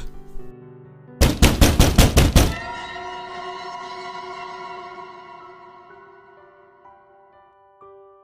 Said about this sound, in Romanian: Aud oameni, băteau la ușa mea,